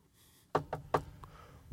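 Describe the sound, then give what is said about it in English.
Three sharp knocks on a door in quick succession, followed by a fainter fourth tap, with no one speaking. “Go knock on doors, bro.”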